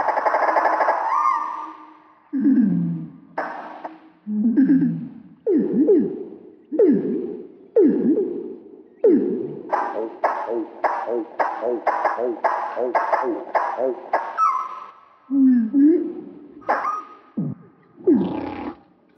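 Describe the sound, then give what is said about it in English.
Slowed-down nightingale song, its notes stretched into low, swooping, whale-like moans and groans, delivered in distinct phrases with a quick run of repeated pulses midway, fairly loud and with no talking. “And here's the slowed down nightingale. It sounds quite a lot like a humpback whale.”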